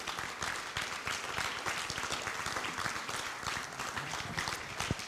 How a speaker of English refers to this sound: Oh, would you clap your hands and praise Him before you're seated?